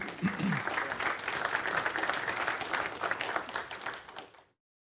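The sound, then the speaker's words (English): An audience applauds a speaker at the end of a talk, as questions are opened, steadily for several seconds: a dense, even wash of many hands clapping at moderate loudness, with a brief voice near the start before the clapping cuts off. “a round of applause”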